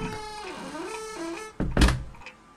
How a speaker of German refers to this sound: dann klackt die Tür wieder und ihr seid gefangen.